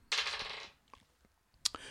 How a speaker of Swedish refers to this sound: Nu ska vi se. Nu ska vi slå tärningar.